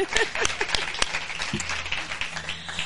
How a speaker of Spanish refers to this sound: Así que, bueno, ¡un aplauso!